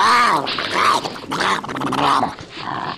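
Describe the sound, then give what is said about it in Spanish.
Harsh, rasping growls and screeches rise and fall in several loud, overlapping bursts, the raucous snarling of Tasmanian devils squabbling as they feed, with no talking. “Nuestra alimentación es ruidosa y hacemos gritos”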